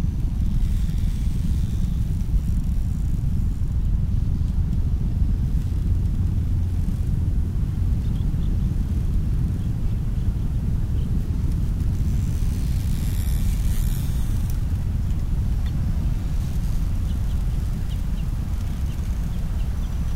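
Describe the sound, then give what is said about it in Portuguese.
A steady, soft wind blows gently past by a large baobab tree without pause, a low continuous rumble filling the air with no voices, holding an even level from start to finish. “O vento sopra gentilmente, passando por nós.”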